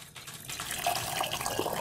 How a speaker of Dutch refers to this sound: Ah ja, dus gewoon de blaadjes in het kopje en het 90 graden water ja, 90 graden water op, dat ga ik nu doen.